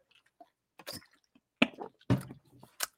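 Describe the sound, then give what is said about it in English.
Someone takes a drink: a few soft wet slurps and gulps in short bursts, followed by a swallow and a small exhale, with no talking over it. “Let me take a little sip of this, right?”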